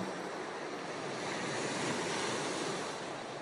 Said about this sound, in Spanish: Cada ola que rompe contra tu barco te dejo una palabra del mar de los otros.